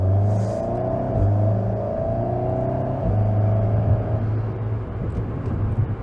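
car accelerating

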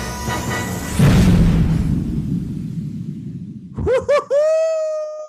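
explosion sound effect

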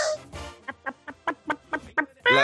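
rooster crowing sound effect

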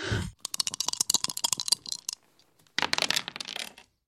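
dice being rolled

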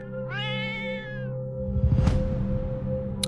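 angry cat yowling

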